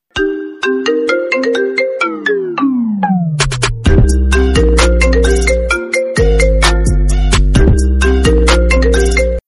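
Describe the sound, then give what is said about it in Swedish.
A loud melodic phone ringtone plays on its own as a phone call is placed, a bright synthesized tune of quick repeated notes with a descending run and a heavy bass pulse joining partway through. “Jag ringer honom nu.”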